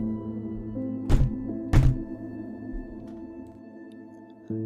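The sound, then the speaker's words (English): Two solid knocks on wood in a house, a little under a second apart, sounding over a low, steady droning hum, followed by quiet with another faint knock near the end. “Strange knocking sounds were heard throughout the house at all hours of the day and night.”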